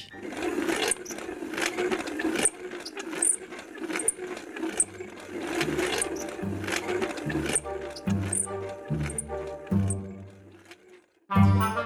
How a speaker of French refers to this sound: Mais reste qu'encore aujourd'hui, on désigne cette sorte de pompe par le nom de vis d'Archimède. Vous avez d'ailleurs entendu la version électrique et contemporaine de cette vis en introduction, mais à l'époque, elle devait plutôt sonner comme ceci.